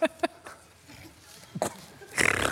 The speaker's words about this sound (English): Oh, I'm snorting now.